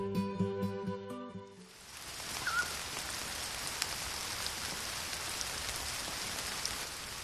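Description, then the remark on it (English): Steady rain falls on a July day at an elementary school in Deqin County, China, in a dense, continuous hiss with occasional drips, following a brief burst of tonal music at the start; no one speaks. “On a rainy day in July, a group of medical professionals from Beijing and Wuhan Visit an elementary school in Durchin County to give free screening for infants and children.”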